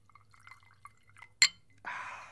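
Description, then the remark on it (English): A few small clicks and a sharp glass clink, then a steady stream of Fireball whisky being poured into a glass as a shot, continuing to the end. No one speaks. “I'm gonna pour a drink out to your fallen shave soap here.”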